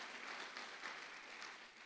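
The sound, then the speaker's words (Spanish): An audience applauds the Lord together, a dense, steady wash of many hands clapping that holds evenly for about two seconds, fairly soft in level and with no voices over it. “Ay, dele palmas al Señor, hermano, mire, con la leche en los dientes, hermano.”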